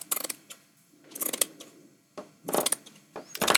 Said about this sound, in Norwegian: Nå klipper jeg et sort stoff